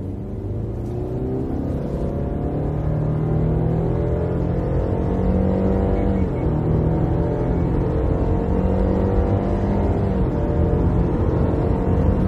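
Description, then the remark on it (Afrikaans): A Subaru's naturally aspirated 2-litre boxer engine, producing 115 kW and 196 Nm, drones loudly and steadily, its pitch swelling and dipping a few times as it revs, with no talking over it. “Die nie aangejaagde 2 liter bokser masjien stoot 115 kW en 196 Nm wrinkrag uit wat in alledaagse ryery voldoende krag lewer, maar daar's geen opwinding nie soos in vinnige turbo Subarus.”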